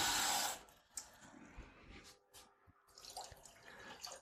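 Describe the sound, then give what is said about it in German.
Water gushes into a cooking pot on the stove, a loud rushing pour at first that fades into scattered splashes, trickles and light clinks. No one speaks. “Dann kann der Herd an, denn ich gebe gleich einen Teil Wasser dazu.”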